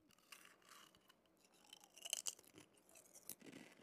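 Crisp crunching of a handful of potato chips: a run of irregular crackly bites that grows louder midway into a few sharp snaps, with no one talking.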